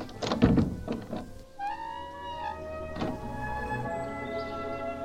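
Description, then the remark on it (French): A wooden window shutter of a first-floor bedroom is flung open abruptly with a quick series of loud knocks and thuds, then a creaking, whining tone and one more sharp bang as it settles. “Alors, j'ai entendu le maître ouvrir brusquement le volet de sa chambre au premier étage.”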